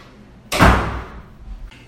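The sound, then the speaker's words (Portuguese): A doctor pushes the door of his consulting room shut with a single solid thud that rumbles briefly and fades into quiet, with a faint scrape near the end. “Só vou encostar a porta aqui.”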